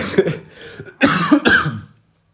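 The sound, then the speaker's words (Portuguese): A person coughs several times, a softer cough followed by two loud, harsh, wet-sounding bursts in quick succession, then silence. “isto é, é muito nojento eu estar assim a, a, a tossir, é, não é?”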